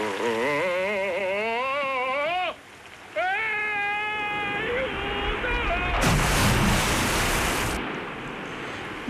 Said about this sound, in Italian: Basta la cascata a sistemarti.